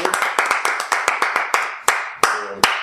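A short round of applause: about a dozen sharp, crisp hand claps, quick at first, then spacing out and slowing as it tapers off, with no voices over it.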